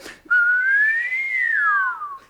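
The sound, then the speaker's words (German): A single sustained whistle rises slowly in pitch, holds, then glides down again, clear, lasting about two seconds with a brief breathy sound just before it starts. “Dann schweben sie und müssen haushalten mit der Stickluft, verlieren den Boden unter den Füßen, fühlen Schwindel und pfeifen.”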